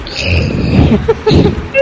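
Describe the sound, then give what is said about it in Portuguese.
A person imitates a Tyrannosaurus rex roar: a loud, gravelly growl that rises and surges for nearly two seconds with a brief dip midway. “Só pelo, rugido, só pelo rugido vocês já sabem que é o T-Rex.”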